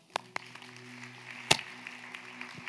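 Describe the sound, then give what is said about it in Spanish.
A single person applauds themselves, clapping a few times at an irregular pace, with sharp slaps and one louder clap in the middle, over a steady low hum and no talking. “Me aplaudo solo.”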